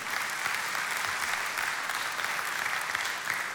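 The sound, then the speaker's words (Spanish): An audience claps steadily for the Lord, a dense, continuous wash of many hands applauding at an even level for several seconds, with no voices standing out. “Vamos a darle un fuerte aplauso al Señor por eso.”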